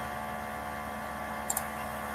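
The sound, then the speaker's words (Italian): A steady mechanical whir of a cooling fan, picked up through an open microphone, hums continuously at a moderate level with faint tonal bands, broken only by two quick tiny clicks near the end; no one speaks. “riparte la ventola. Ragazzi, non so cos'è sta ventola, ma dovete chiudere il microfono.”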